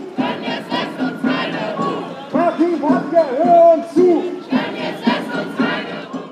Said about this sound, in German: der heute nicht gekommen ist und offenbar nicht sehen will, was die Menschen hier bewegt, die gerade mutig vor dem Rathaus in Sprechchören nach ihm rufen.